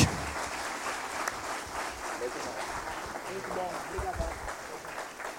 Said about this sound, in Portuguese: Gente, eu gostaria que vocês aplaudissem pela vida do Robert.